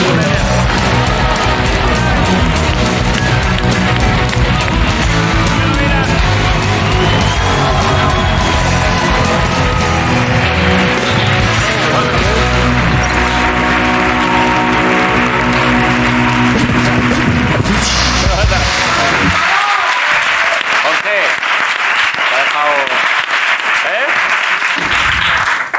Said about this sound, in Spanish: Han venido para que paséis un buen rato, así que qué menos que recibirles. Un aplauso para Arturo González Campos y Dani Rovira.